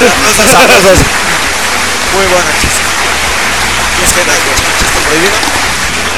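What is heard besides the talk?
applause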